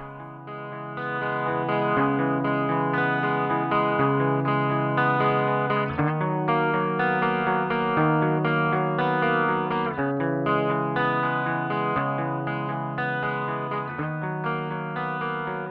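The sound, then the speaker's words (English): A doubled electric guitar riff, two guitar parts playing the same part, plays alone, steady and loud, with a thick, slightly distorted, chorus-like tone. Its notes shift every couple of seconds in a repeating pattern. “I began the song with just a guitar riff. For the recording, I doubled it up so it's two guitar parts playing the same part, just to help it sound a little fuller.”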